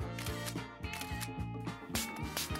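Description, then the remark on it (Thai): Several quick phone camera shutter clicks snap in an uneven series as someone takes selfies, over steady background music that keeps playing throughout. “งั้นเดี๋ยววางสายแล้วจะเซลฟี่ไปให้ตัวเองดูเลย”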